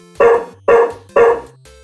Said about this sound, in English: Just when he was about to lose hope, he heard a familiar barking sound.